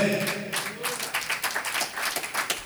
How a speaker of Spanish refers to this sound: Gracias. Que ese aplauso llegue a la presencia del Señor por mi mamá.